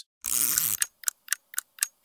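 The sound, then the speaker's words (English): A short whirring burst gives way to a clock ticking steadily, five or six crisp, evenly spaced ticks, clear with no voices. “He loved making clocks and even invented an alarm clock that tipped the bed so you'd be forced to get up.”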